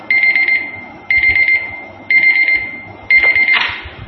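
An alarm clock rings in four loud, regular bursts about a second apart, each a shrill electronic beeping tone, ending with a brief clatter as it's stopped.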